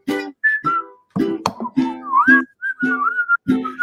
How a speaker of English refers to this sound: When you're chewing on life's gristle, don't grumble, give a whistle and this will help things turn out for the best.